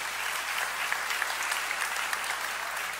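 A crowd applauds steadily, a dense wash of many hands clapping at an even level throughout, with a few sharper individual claps standing out. No one speaks.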